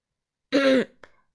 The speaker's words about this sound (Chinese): 聪明先生想了想，又清了清嗓子，然后开始说话了。